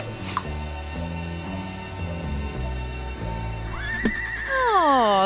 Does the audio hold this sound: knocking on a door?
no